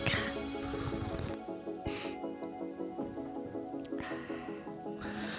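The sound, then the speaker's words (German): Someone slurps a drink, with a few noisy sucking bursts separated by short pauses over a steady tonal background. “Unhöflich, wenn ich so schlürfe und mache?”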